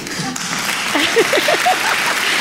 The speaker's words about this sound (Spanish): Así da gusto. Ahí con la afición, ¿eh? Mira, no se cansan, ¿eh? Los tíos ahí, ven Oye, las palmas también es un instrumento, ¿eh? pues sí.